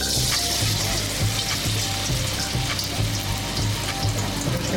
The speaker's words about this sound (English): fry up our tofu and try and crispen it up a little bit so I get some of that texture.